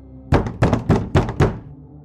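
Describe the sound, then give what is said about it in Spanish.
Five firm, evenly spaced knocks on a door by an aunt in the early morning, fairly loud, each a dull wooden thud in a quick steady rhythm, with no voices. “En ocasiones me despertaba cuando su tía tocaba la puerta y la hablaba fuerte.”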